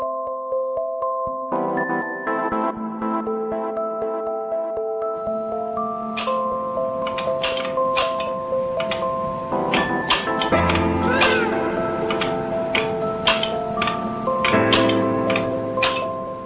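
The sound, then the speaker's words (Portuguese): Steady, rapid mechanical clicking from the rustic controls of an early tennis game played on an oscilloscope, ticking in a regular rhythm beneath sustained electronic tones and warbling, meow-like synth notes that shift pitch throughout. No one speaks. “Esse som que você está ouvindo é o som que faziam os controles do jogo de Willy.”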